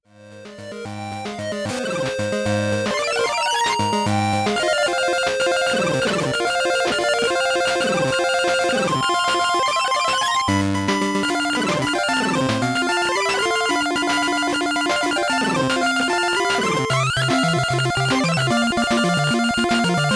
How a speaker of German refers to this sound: dass die Soundeffekte auf dem Gameboy wahnsinnig nerven. Speziell, wenn man die Missile-Waffe aktiviert hat. Nicht nur, weil sie extrem klirren